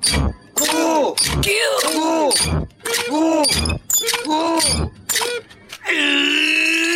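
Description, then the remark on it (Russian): A loud, produced intro jingle for the radio show segment 'Живой концерт': a run of dramatic wailing vocal-like swoops punctuated by sharp crashing hits, ending on a long sustained bright chord. “Э, ужасная заставка, конечно,”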